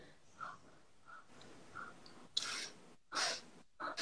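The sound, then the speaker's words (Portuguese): A person breathes audibly through a nearly closed mouth, three airy, hissing breaths in quick succession after a quieter stretch, each a short rushing burst of air. “Aí ficava com a boca bem quase fechada, respirando.”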